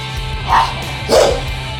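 A dog barks twice, about half a second apart, each bark short and fairly loud over a steady low hum, with no talking.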